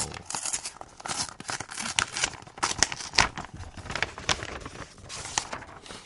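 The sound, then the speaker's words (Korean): Crackly tearing and crinkling of paper and tape as a taped paper envelope is torn open, a series of sharp rips and rustles continuing for several seconds with no one speaking. “자, 이게 또 테이프로까지 붙였어.”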